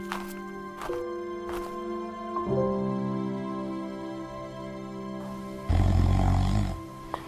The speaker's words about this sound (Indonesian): … pun tidur mendengkur tanpa sadar waktu sudah zuhur.